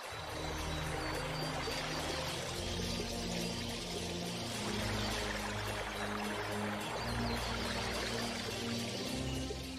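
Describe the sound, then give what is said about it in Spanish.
Water in a pool by a waterfall churned and splashed by hand from the bank, a steady, dense sloshing that runs unbroken for the whole stretch, with a low humming drone underneath and no voices. “Mientras los animales comían, a Agustina le gustaba tirarse boca abajo, a la orilla de una poza y con las manos agitaba el agua.”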